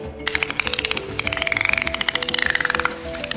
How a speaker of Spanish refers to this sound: Bueno, pues a esto se le llama ecolocalización. Los animales que la utilizan son animales como los murciélagos, las ballenas, los delfines, las musarañas, que son como tipo de ratón, o también el guacharo, que es como un ave. Escuchen esto.